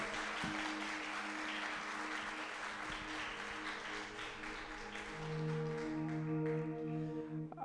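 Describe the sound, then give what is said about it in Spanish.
A large crowd applauds the Lord loudly and steadily for several seconds, a dense wash of clapping, while sustained organ-like chords ring underneath. “Denle ese aplauso bien fuerte al Señor, que se escuche.”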